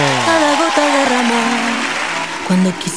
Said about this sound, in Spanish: Aplauso para usted.